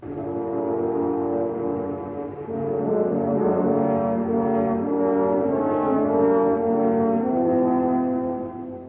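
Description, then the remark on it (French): Three French horns play the wolf theme, portraying a big grey wolf coming out of the woods: a dark, heavy melody in sustained harmony, loud, with a brief breath-like dip early on before the held, brassy chords swell again. “grand loup gris qui sort du bois. Écoutez les trois corps sévères et sombres.”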